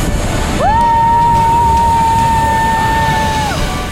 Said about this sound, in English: because after exploring a hidden jungle waterfall that we found along the route,